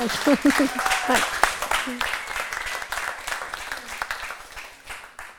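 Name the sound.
audience applause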